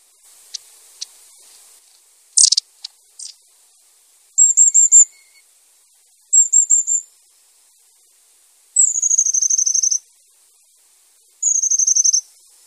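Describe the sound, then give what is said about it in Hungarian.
Long-tailed tit (Aegithalos caudatus) calls: thin, high trilling bursts and sharp ticks repeating in short clusters, with quiet gaps between. No one speaks. “Őszapó (Aegithalos caudatus)”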